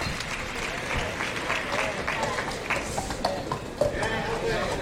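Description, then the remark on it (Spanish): A large bullring crowd breaks into a sustained ovation for Palomares during the fifth bull of a bullfight, dense rolling applause at a steady, loud level, with scattered cheers and crowd voices mixed in. “Dios, se lleva una ovación.”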